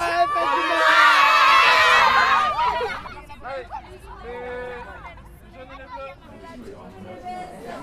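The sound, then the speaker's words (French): A crowd of young students shouts and cheers loudly at the end of a match, the excited yelling peaking early and then breaking into scattered calls and overlapping chatter. “Fin du match”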